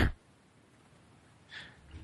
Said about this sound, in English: So I, wait, uh, maybe it's not your audio is cutting out. Maybe you're just coughing.